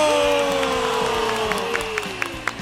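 A crowd applauds and cheers loudly for a few seconds, dense clapping in a steady wash with a few sharper claps standing out and drawn-out whoops gliding downward in pitch above it.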